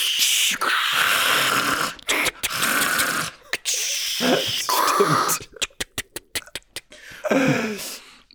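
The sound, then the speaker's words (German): A voice imitates the hissing pneumatic air valves of old animatronic figures in amusement parks with breathy, noisy bursts, some long and some clipped, ending in a rapid series of short sharp hisses before a final rasping exhale, fairly loud. “Ja, aber das ist halt, du hast in vielen Freizeitparks immer noch diese, diese alten Mechatronic-Figuren, Animatronic-Figuren, die immer vor allem immer, die, du hörst immer diese, diese Luft, diese Ventile.”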